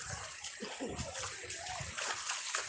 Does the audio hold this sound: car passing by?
no